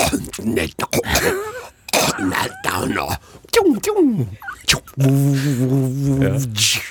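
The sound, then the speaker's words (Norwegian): A voice demonstrates a throat (pharyngeal) speech sound, making several harsh, rasping throat-clearing hawks with the tongue pressed back, in short bursts, then ends with a longer, strained voiced sound. “Og så kan vi gå tilbake til, eh, til svelget, for du har jo språk da man presser tunga bakover. Har, har. Et slags, hark, et slags hark.”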